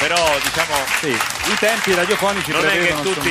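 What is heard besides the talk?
applause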